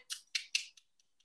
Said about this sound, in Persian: مارمولک که صدایی در میاره اگه اون صدا رو یه بشنوین این یعنی که بهتره که اون موقع مثلا بیرون نری سب مثل عدسه ما سب صدایی در میاره مارمولک یه جیر جیر میکنه این مارمولک گنده